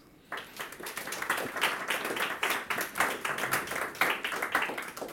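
An audience at the Lyrikksalongen poetry event in Bergen breaks into warm applause welcoming a poet and translator of Celan, a dense stream of many overlapping handclaps that starts abruptly and holds at a steady, moderately loud level throughout.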